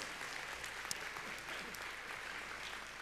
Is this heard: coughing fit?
no